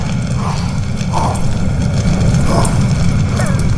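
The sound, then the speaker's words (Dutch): A voice imitates the roaring fire of a burning kitchen and house with a sustained, loud rushing whoosh, dense and continuous for a few seconds, with breathy surges swelling now and then. “En hoe klonk dat vuur dan?”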